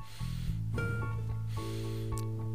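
Quick, shallow breaths of a person demonstrating how people usually breathe, a few short airy puffs in succession over a steady tonal background hum, with no speech.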